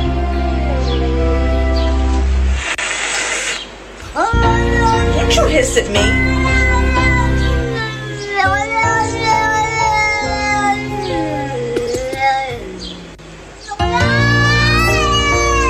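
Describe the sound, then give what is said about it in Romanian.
An upset cat meows plaintively in long, wavering, drawn-out cries, loud, with sliding pitch and brief pauses between calls, mixed over steady background noise. “Cine are pisică știe că sunt supărate... What? Fac... Că sunt supărate, fac o groază de sunete ciudate.”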